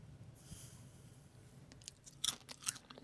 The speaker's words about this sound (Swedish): Nu, varsågod, här är en kopp med vatten. får du prova det som jag äter popcorn. Doppar man, lyssna ljudet nu.